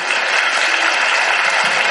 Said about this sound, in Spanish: Con un fuerte aplauso nos despedimos de él.